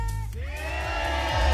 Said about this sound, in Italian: Buongiorno ragazzi, senti l'urlo della folla dei ragazzi che stanno aspettando di farsi controllare il golden ticket, ragazzi, ci siete?